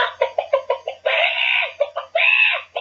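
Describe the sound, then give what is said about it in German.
Chickens cluck in a quick run of short bursts, broken by two longer, drawn-out squawking calls; loud and clear with no one talking. “Zu einem ganz seriösen äh, neuen Kategorie kommen, und zwar die, die Spalte Hühnergezwitscher.”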